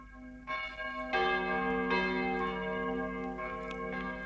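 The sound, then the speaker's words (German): A church bell strikes eleven o'clock in slow, repeated strikes, each rich ringing tone swelling over the lingering hum of the last, steady, with no voices. “Während die Glocke elf läutet, denkt der Herr Küderli.”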